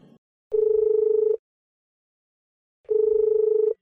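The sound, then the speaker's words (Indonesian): An outgoing phone call's ringback tone sounds twice, each steady electronic burr lasting under a second, separated by a long pause of silence. Clear, with no voices. “Duh, gue telepon Dira ah.”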